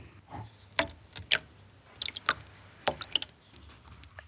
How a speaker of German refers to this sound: Ein Rad besteht nur aus Stein und darunter ist so eine Wasserschale, da kommt Wasser rein, der Stein saugt nämlich Wasser an, dass wenn man dann schleift, dass das Messer nicht heiß wird.